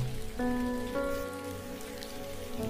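Steady rain patters continuously on a surface, a soft even hiss with scattered drops, while a few gentle sustained musical tones hum quietly underneath. No one speaks.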